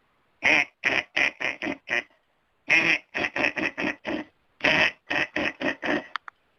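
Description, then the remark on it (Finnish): A duck quacks loudly in three rapid runs of five or six harsh, nasal calls each, separated by brief pauses. No one speaks. “Sorsa lenti viisi kertaa ympäri rinkiä, kun ärskytti lintulovalla.”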